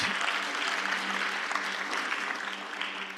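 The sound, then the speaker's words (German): A church audience claps for the pianist steadily for a few seconds, a dense, even wash of many hands with no voices standing out, holding at a fairly constant level before easing slightly at the end. “Hey, du hast das so gut gemacht vorhin, gebt ihm einen Applaus.”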